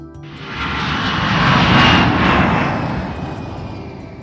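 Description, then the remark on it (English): An airplane passes overhead with a loud, broad engine roar that swells to a peak midway, then slowly fades as it moves away. No voices are heard. “Whoa, cool. I see a flying plane.”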